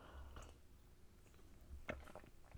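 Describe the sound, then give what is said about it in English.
Someone takes quiet sips of hot tea, with soft wet slurping and swallowing sounds and a couple of sharper sips near the end. Nobody speaks. “okay just a second let me have a sip of my tea”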